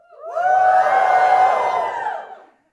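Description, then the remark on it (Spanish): A crowd of people lets out a loud, enthusiastic shout together, a swelling collective cry that holds for about two seconds before fading away. “Mire, los filisteos se hubieran reído de ese grito.”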